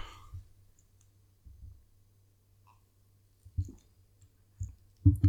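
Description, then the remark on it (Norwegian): Someone drinks beer: a handful of soft, low gulping thumps and small clicks at irregular intervals, ending with a slightly louder double gulp. No one speaks. “Nå skal jeg ta og drikke litt øl.”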